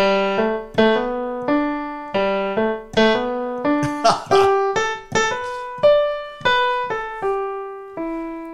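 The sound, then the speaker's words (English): A solo piano plays a song's melody in a bouncy style, in clear, ringing notes, with quick slipped grace notes crushed against the main tones as a deliberate mistake and correction, especially in a busy flurry midway through. “But then if you add in that uh, the mistake and the correction, mm-hmm.”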